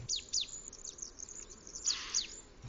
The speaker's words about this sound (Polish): las to jest dużo różnych gatunków i w tym całym morzu różnych głosów śpiewu te dwa gatunki, tak o których chcę powiedzieć, Właściwie ich głosy czy ich śpiew tonie w tym morzu innych głosów ptaków. To są dwa gatunki: pełzacz leśny, pełzacz ogrodowy.